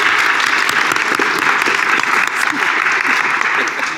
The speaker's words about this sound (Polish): Wielkie brawa.